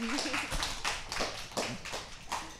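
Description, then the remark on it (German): A small audience claps steadily for a few seconds, a dense patter of many hands with a faint voice murmuring underneath. “Gerne klatschen.”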